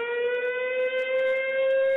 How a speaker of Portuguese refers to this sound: A sirene toca e o Fire reforça o som, como que chamando os amigos os bombeiros voluntários de Castanheira de Pera. É, quando ela toca, ele começa a uivar aí.